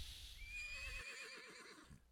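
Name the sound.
horse whinnying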